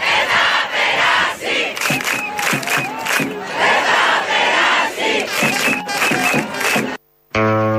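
A large protest crowd in the central square of Athens, Greece, protesting the Tempi crime, chants the slogan "Den tha perasei" ("It shall not pass") in unison, loud and rhythmic with rising and falling voices for several seconds, then abruptly cuts out, followed by a brief low electronic hum.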